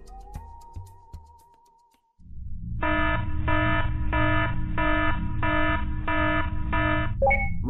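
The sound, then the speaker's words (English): A loud spaceship red alert alarm, warning of an incoming spaceship, blares in seven even, pulsing bursts over a deep, steady rumble, preceded by a few faint clicks and a rising tone. “Red alert! Red alert!”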